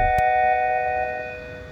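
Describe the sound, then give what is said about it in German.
A doorbell chimes once: a short click, then a bright, ringing bell tone with several steady pitches that slowly fades over under two seconds, with no one talking. “Okay, da hat's gerade geklingelt bei dir.”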